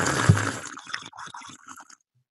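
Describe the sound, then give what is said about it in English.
A voice imitates loud, wet slurping of ginger tea: a broad gurgling suck up front, then a string of bubbly, sputtering sips that trail off, alone with no talk. “He said he was drinking ginger tea.”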